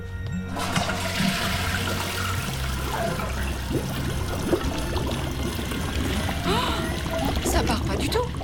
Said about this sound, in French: Mais qu'est-ce que t'as foutu T'as mis une tonne de papier dans la cuvette, là C'est bouché Je tire la chasse, euh, ça va peut-être partir.